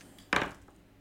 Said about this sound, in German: Bitte würfelt alle zwei zehnseitige Würfel. Okay. Alle zwei zehnseitige Würfel.